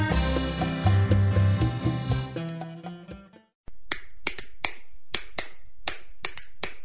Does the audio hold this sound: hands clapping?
yes